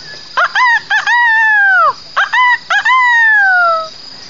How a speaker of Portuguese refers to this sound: Era o amanhecer de um lindo dia de outono. As folhas das árvores caíam ao compasso do vento, criando um belo tapete de tons verdes. O galo cantou no mesmo instante que o relógio apontou às seis da manhã.